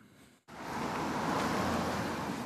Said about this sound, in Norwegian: Bilene passerer tett i Seterkrysset på Nordstrand i Oslo.